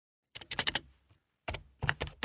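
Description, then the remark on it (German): Rapid clicking of keys on a computer keyboard as someone types into a PC during a phone call, in two quick bursts separated by a short pause, with no voices present. “Nehmen wir an, Sie bemerken während des Telefonats, dass Ihr Gesprächspartner etwas in seinen PC tippt.”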